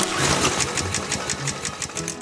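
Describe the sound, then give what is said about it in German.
A small petrol lawnmower engine, started with a single pull, runs steadily, its rapid, even chugging beats loud with a rattly, buzzing edge and no voices. “Einmal ziehen und der Motor springt an.”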